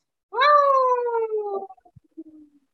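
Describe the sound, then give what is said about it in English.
A person's voice imitates an angry cat, letting out one loud, drawn-out yowl that slides slowly downward in pitch, then trails off into a few soft, faint sounds. “I can do an angry angry cat sound.”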